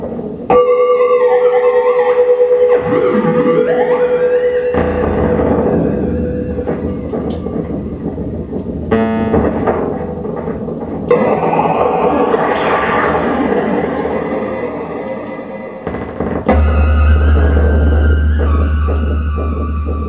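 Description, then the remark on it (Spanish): Loud, harsh electronic noise from a wearable tattoo instrument on the body of Russian artist Dmitry Morozov (Vtol), who designed it, shifting through buzzing drones, steady tones and glitchy sweeps with abrupt cuts between textures, ending on a deep rumbling hum. No voices. “Vamos a escuchar cómo suena el tatuaje en su cuerpo.”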